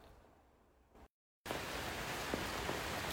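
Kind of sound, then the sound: nature, rain falling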